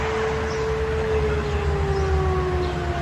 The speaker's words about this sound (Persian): دیشب صدای آژیر خطر اومده در غرب تهران خب اینو بشنوید میشنوید